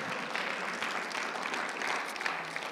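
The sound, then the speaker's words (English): An audience claps together in a dense, steady burst of applause, many hands blending into a continuous crackling wash that holds its level for a few seconds. “Can we just give God a clap about that?”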